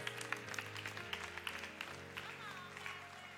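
An audience claps in a loose, scattered patter of sharp hand claps over a sustained, droning tone that holds steady underneath throughout.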